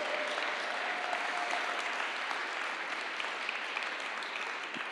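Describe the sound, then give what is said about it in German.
An audience applauds the Lord steadily, a dense, even wash of clapping hands that holds at a constant level for the whole stretch without any voices breaking through. “Lass uns dem Herrn mal einen Applaus geben, weil das ist die Wahrheit.”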